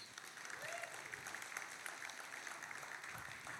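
Audience applause, a steady dense clatter of many hands clapping at an even, fairly loud level throughout, with no voices standing out.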